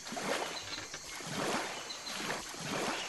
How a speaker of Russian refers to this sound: налег на весла и взял курс к тому месту, куда приводнился самолет-амфибия.